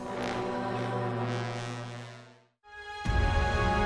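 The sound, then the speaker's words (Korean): Grand, majestic music with deep, sustained horn-like tones swells steadily, drops away into a brief hush, then returns louder and fuller with a heavy low-end surge. No one speaks. “어, 이 곡은 웅장합니다.”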